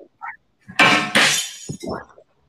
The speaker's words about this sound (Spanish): alguien le están botando los platos ahí. ¿Quién se ha portado mal? No sé, ¿A quién se le está cayendo los platos? Pero a alguien se está cayendo.